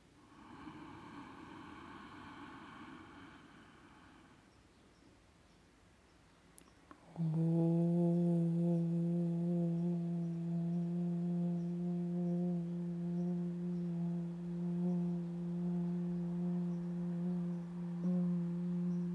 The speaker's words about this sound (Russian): Глубоко вдохните, сделайте паузу и затем произнесите ом, чувствуя его вибрацию в груди, горле, рту, в носу и губах.